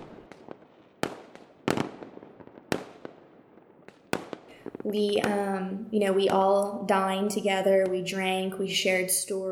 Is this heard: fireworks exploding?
yes